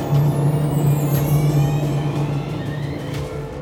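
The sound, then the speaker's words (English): Air brakes hiss over the steady drone of a bus engine as the doors shut and the bus pulls away from a school, the rumble holding throughout with no voices. “The doors shut and we pulled away from the school.”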